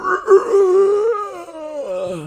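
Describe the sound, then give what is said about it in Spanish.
A human voice imitates the muffled, strained scream of a zombie with rotting flesh trapped inside a car against the closed window, a drawn-out wavering moan that rises and then falls into a lower groan, sounding dulled behind the glass. “Escuchas un grito detrás de un vidrio, está dentro de un auto, es alguien que se está desparramando con su carne putrefacta contra la ventana cerrada de adentro de un auto y escuchas el sonido apagado de...”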